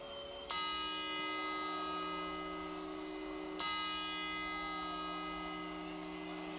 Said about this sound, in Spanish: Estas son las campanadas de Año Nuevo, pero todavía no, todavía no, todavía es 2022. Todavía quedan unos días para 2023. Sí, estas eran las campanadas en Madrid, donde comemos las uvas.